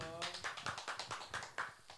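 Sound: hand clapping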